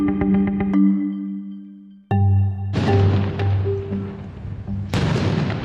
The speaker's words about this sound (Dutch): Maandagochtend vroeg klinkt in Jenin de ene naar de andere explosie.